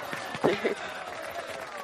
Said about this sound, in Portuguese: Palmas para a gente. Pra colocar na edição, bravo, né? Palmas, bravo, né? bravíssimo.